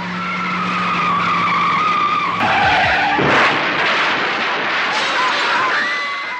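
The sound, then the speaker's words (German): A Mazda RX-7 driven by a drunk driver races at about 120 km/h into a dead-end street with a rising engine whine, then tires squeal loudly in a long, harsh skid, the screech dominating the noisy scene with no talking. “Mit 120 kmh flügte er mit seinem Mazda RX-7 durch parkende Autos und in die Menge und hinterließ dabei eine Spur der Verwüstung.”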